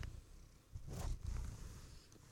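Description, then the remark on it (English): A female cat rubs her face against the microphone cover, making muffled brushing and thumping noises over a low rumbling purr, with a louder rub in the middle and no talking. “That's her rubbing her face on the microphone cover.”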